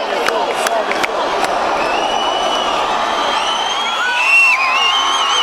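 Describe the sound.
A large concert crowd roars and shouts together, a dense wall of overlapping voices and whoops that stays loud and steady throughout, with a few sharp claps or knocks early on.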